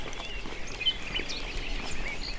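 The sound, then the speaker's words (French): Faint birdsong at daybreak as someone walks alone along a path, a few scattered chirps rising over a steady high-pitched hiss of ambient noise. “Merci les oiseaux de mettre un petit peu de musique.”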